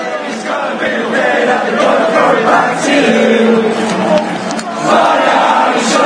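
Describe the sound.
A big crowd of football fans sings together in a stadium, a loud, steady mass of voices holding sustained pitches with rough chanting texture for the whole stretch.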